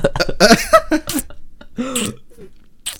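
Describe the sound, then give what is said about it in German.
Exaggerated, wet lip smacking: a handful of loud, sharp smacks spread over a few seconds, mixed with throaty mouth noises and breathy vocal sounds. “Ich kann, ich kann einen schmatziger machen.”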